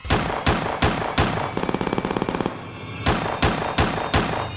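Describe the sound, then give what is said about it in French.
A burst of gunshots as the driver of one car opens fire with a handgun on another car in South Jamaica, Queens: several loud, sharp single shots, then a rapid automatic rattle, then more evenly spaced heavy shots, dominant, with no talking. “Le conducteur a directement sorti un 9000. Et là.”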